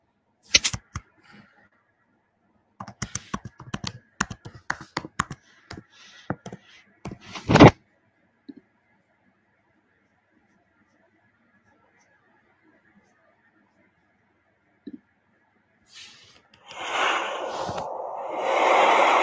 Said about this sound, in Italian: Eh, siccome eh, sono connessa su Clubhouse, dicono che non lo sentono. Aspetta, ve lo faccio sentire da qui il suono del vento.